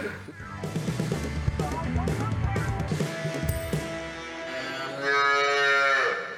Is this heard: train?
no